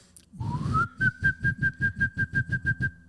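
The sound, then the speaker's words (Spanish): A person whistles, sliding upward in pitch up the scale and then breaking into a quick, even run of about a dozen short, breathy notes on a steady high pitch. No one speaks. “O sea, va, subiendo la escala. O sea, tiene toda la. Tengo los labios bien secos, chingada.”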